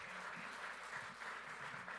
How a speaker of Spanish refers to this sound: Dele un fuerte aplauso al Rey bendito.